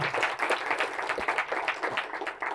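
An audience applauds, a dense, steady patter of many hands clapping at once, fairly loud and sustained throughout with no voices over it.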